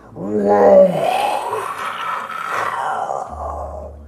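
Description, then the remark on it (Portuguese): A man growls out a monster's roar with his voice, a loud bellow that starts with a strained tone and turns into a long, raspy rumble lasting several seconds. “Essa criatura dá um rugido no ar.”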